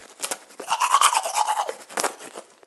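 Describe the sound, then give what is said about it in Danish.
Steady scrubbing of a toothbrush against teeth, a wet rasping back-and-forth with brief strokes and pauses, heard alone for a few seconds. “Tandbørsten, som vi kender den i dag, stammer fra begyndelsen af 1800-tallet.”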